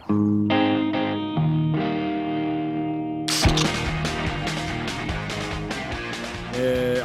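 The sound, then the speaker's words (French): A song intro opens on sustained, effects-laden electric guitar chords, then drums and a full band crash in about halfway through, loud and driving, with no one speaking. “Puis c'est ça, celui-là, il commence avec le, avec, euh, le bout électrique.”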